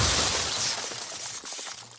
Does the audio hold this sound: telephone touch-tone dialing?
no